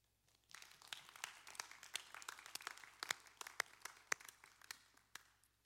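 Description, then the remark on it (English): People in a church break into applause to thank the women who have served the church, a dense patter of many hands clapping that starts abruptly and carries on steadily for several seconds. “And we all know how much our church has benefited from not just the service, but the leadership of various godly women who have served you and me and all of us so faithfully, and we should thank them with a round of applause.”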